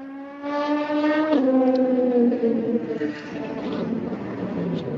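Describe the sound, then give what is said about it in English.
Race cars, including GT Daytona (GTD) cars, roaring around a racetrack with a full complement of cars on track: a loud, whining engine tone drops sharply in pitch after about a second, then a rougher drone of several engines carries on throughout. “So we have now got a uh, full complement of cars on the racetrack.”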